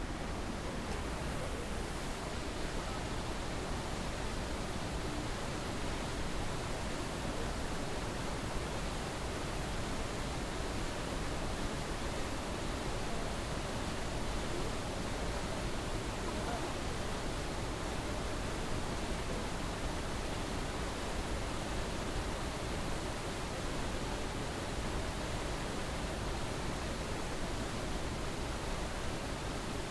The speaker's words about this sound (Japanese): 竜頭の滝という名前がついたそうなんですけれども本当にこの竜がですね下になんかこっちに迫ってくるような感じのする滝ですね滝のすぐ近くにはもみじなどがあるんですけれどもまたこれが紅葉したらさらに美しい景色が広がるんではないでしょうかそれでは竜頭の滝の音をお聞きください